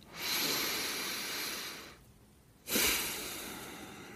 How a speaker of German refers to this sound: Und jetzt nehmen wir in unserer gedanklichen Welt nochmal einen tiefen Atemzug nehmen, nochmal diese frische Luft, die auch ein bisschen kühl ist von dem Bach, der da neben uns entlang läuft. Nehmen wir nochmal einen tiefen Atemzug.